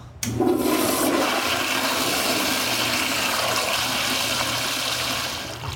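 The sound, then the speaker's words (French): A toilet flushes at a stop near a gas station in Valleyview, Alberta: a sudden loud rush of water that holds steady for several seconds, then begins to ease off near the end. No one speaks. “Alors, on s'est arrêté pour euh, manger une, croûte, aller aux toilettes”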